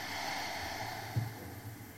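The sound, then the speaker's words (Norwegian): A long, steady breath pushed out slowly in a guided belly-breathing exercise, navel drawn in, a soft airy hiss lasting about two seconds with a slight catch midway, fairly quiet, with no talking. “Og pust ut.”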